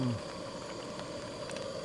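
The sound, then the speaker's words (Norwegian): Water boils in a pot with a steady rush of bubbling and hissing, a continuous churning texture that holds at an even level throughout. “Der koker det.”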